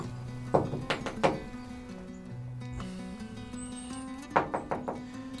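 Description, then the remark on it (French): Knocking on the door of a small house with no doorbell: a quick burst of three firm knocks, a pause of a few seconds, then another run of about four knocks, over a low steady tonal hum. “Toc toc Y'a quelqu'un”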